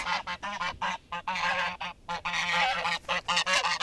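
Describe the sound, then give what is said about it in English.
Several geese on a property honk loudly and repeatedly at visitors, their harsh nasal calls overlapping in a rapid, agitated chorus with only brief pauses. “We got honked at by their geese, who had a fair bit to say to us.”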